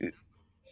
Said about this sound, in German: Es ist echt witzig, dass wir über Räuchern reden und man hört deinen Mitbewohner im Hintergrund husten. Was hast du denn wieder angezündet?